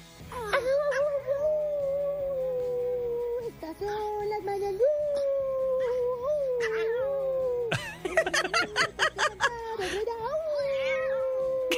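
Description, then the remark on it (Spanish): A person imitates the howling song their small female dog greets them with when they come home, holding long, wavering, whiny howls, then breaking into a quick run of choppy yelps before one last drawn-out howl. “Y pues ahora cada vez que llego a la casa me, saluda con un cántico que dice más o menos así.”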